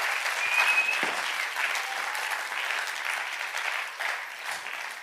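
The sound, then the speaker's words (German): A crowd applauds steadily for several seconds, a dense, even wash of many hands clapping at moderate loudness with no voices standing out. “Geben wir doch einen grossen Applaus.”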